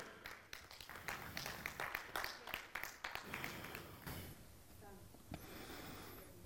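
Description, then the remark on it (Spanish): A church audience applauds for the Lord, a dense burst of many hands clapping for a few seconds that thins out and fades, leaving faint background noise and murmuring voices. “Dale un fuerte aplauso al Señor por eso.”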